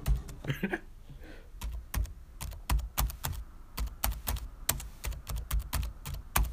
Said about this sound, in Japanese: こんな感じで点字を入力することができ